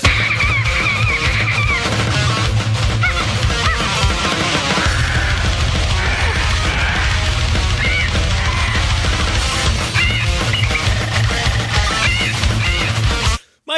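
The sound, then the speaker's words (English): Dense, loud death metal with pounding low drums and distorted guitars, while harsh African grey parrot squawks serve as the vocals, running continuously before cutting off abruptly. “it is an African gray parrot. Uh, this is a little bit of the song … by …”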